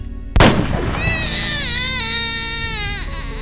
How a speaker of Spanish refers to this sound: Dejó que el bebé siguiera llorando en su cuna y una vez fuera del cuarto, cerró la puerta para no escucharlo.